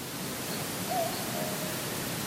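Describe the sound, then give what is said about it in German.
A far-off cuckoo in Australia gives a faint two-note call at night, heard from a tent and recorded in December 2002. It barely rises above a steady wash of hiss from the microphone amplifier, turned up high because the bird was very far away. “nachts hörte ich dann diesen Kuckuck”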